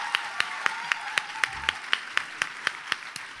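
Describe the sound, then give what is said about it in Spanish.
Applause in a steady, even rhythm: about fourteen sharp, crisp claps at a brisk, regular pace over a few seconds, with a faint constant hum underneath and no talking. “Un aplauso.”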